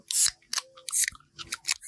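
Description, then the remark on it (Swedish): A bottle of Mariestad beer being opened: a quick series of about six crisp, scraping clicks and crinkly bursts, fairly bright and sharp, with short gaps between them and no talking. “Ja, så eh, då tycker vi öppnar eh, den nu.”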